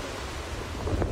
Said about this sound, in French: C'est un déluge historique. Dans le nord du Pakistan, près de l'Himalaya, cette rivière a pris l'allure d'un puissant torrent.